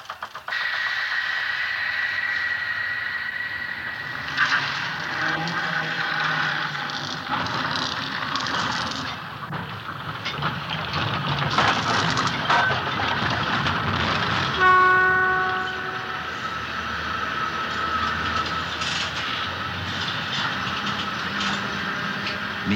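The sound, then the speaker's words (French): A tram in Marseille rumbles along its rails with a steady, fairly loud rolling noise, clattering and squealing in places, and a brief tonal whine or horn sounds partway through. No one speaks. “Quand le tramway arrêté au soleil attendait, où j'étais assis et où j'attendais, que ça recommence la descente en ville.”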